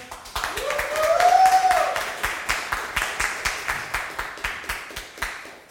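An audience claps to vote for the prosecution, in a steady, rhythmic beat that gradually thins out, with a rising whoop from one voice near the start.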